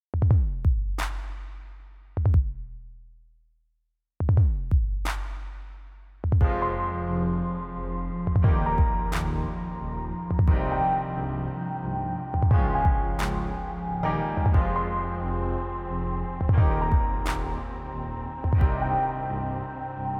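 A band's song opens with a few sparse, booming drum hits and a brief silence, then the full group comes in with a steady beat and rich, sustained instrumental layers.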